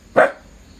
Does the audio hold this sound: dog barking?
yes